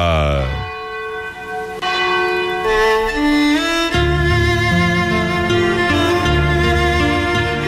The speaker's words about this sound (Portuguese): quando faltam 12 minutos para as 22 horas, tocam o sino da Catedral da Nossa Senhora de Conceição Aparecida.